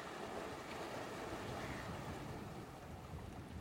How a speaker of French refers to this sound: Le chant du vent et de la pluie après l'orage le chant des vagues qui se brisent sur le rivage,